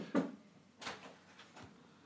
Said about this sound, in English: We're going to pause it because there's someone at the door. Yeah, sorry about sorry about that. There was someone at the door. It was good of them to knock